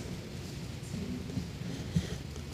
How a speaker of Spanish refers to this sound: ya se está acabando la, calmando la lluvia.